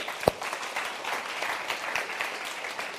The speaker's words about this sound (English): I think he deserves some applause here.